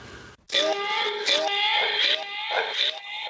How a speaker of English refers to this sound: Oh, that's not creepy at all. So that's echo.